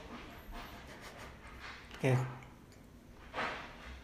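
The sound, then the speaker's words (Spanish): A dog barks twice in a vacant lot, a sharp bark followed a second later by a softer one, against a quiet outdoor background hiss. “Por ahí las almas en pena ya están haciendo los haciendo del baldío. los perros del baldío.”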